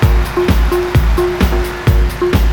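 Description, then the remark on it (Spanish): An applause sound effect: steady rhythmic clapping, roughly two claps per second, over a dense, roaring crowd-like wash of noise that stays loud throughout. “Aplausitos y aplausitas.”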